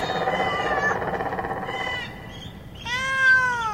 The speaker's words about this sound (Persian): یک سال است که اینجا هستم شبها تا صبح از صدای گربه بیدارم